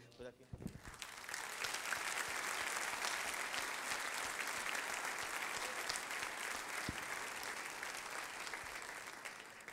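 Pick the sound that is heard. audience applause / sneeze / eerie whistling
audience applause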